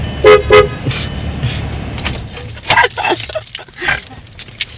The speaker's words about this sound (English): Honk at him when he's squatting.